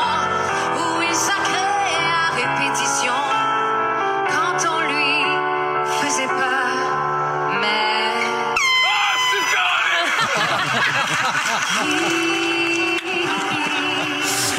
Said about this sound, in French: et donc la personne est arrivée derrière lui avec le klaxon.